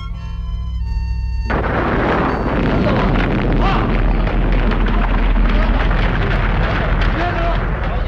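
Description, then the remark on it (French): A brief sustained tone cuts off into the huge explosion of the Castle Bravo American nuclear bomb test on an atoll, about a thousand times the power of the Hiroshima bomb: a loud, continuous roaring rumble with heavy low-end boom that stays powerful for several seconds. “Donc Castle Bravo va dégager environ mille fois la puissance de la bombe atomique d'Hiroshima.”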